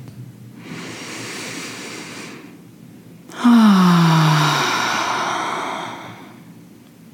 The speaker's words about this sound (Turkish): Ah, neyse hep birlikte bir burundan bir nefes alıp bir ağzından verilir mi? Bence buna çok ihtiyacımız var.